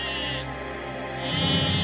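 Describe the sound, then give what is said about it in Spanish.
Sheep bleat at a well in the land of Midian in wavering, nasal cries, one bleat fading into another, moderately loud with no voices. “Aquel día ellas habían ido al pozo a sacar agua para llenar los bebederos y dar de beber a las ovejas de su padre.”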